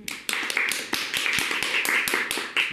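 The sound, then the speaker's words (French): A small group of players applauding themselves at the end of a game scenario, clapping steadily for a few seconds, the sharp, bright hand claps overlapping in an irregular patter at moderate loudness, with no voices. “Est-ce qu'on peut s'applaudir Parce que c'est une fin de scénario.”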